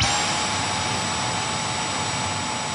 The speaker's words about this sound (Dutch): Dat zou het geluid kunnen zijn van de nieuwe Tesla, maar het is eigenlijk een Dyson. Het is een Dyson. Een zakloze stofzuiger natuurlijk met dit geluid.